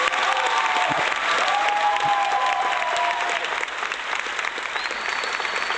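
Sustained applause from a crowd, dense and steady for several seconds, with a few faint whistles or cheers rising through the clapping.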